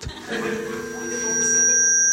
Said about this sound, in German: Jetzt piepst es noch. Ist das normal? Stehe ich im falschen Ort?